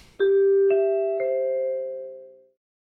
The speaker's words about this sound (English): And speaking of that, it's time to get to the show. Hit those NBC chimes.